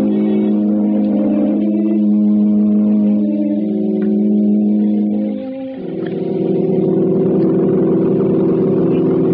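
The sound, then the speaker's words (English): A car engine pulls up and hums steadily, dipping briefly as it shifts pitch, then settling back into a low, even running drone. No voices are heard. “Your car, sir.”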